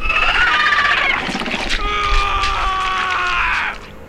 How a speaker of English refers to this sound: And as my screams echoed around the forest for no one to hear, I wondered why they'd left me.